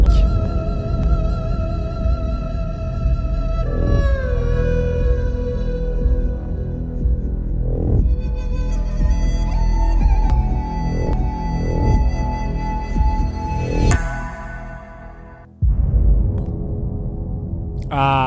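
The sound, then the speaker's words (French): A short theme jingle of layered, sustained electronic tones with gliding pitches and steady bass, playing alone without voices; it briefly cuts out near the end before resuming. “Ça faisait longtemps qu'on n'avait pas entendu ce petit générique qui, est, qui nous est bien particulier”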